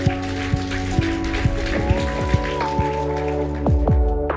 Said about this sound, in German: Komm, wir geben dir mal, was Jesus getan hat, einen riesigen Applaus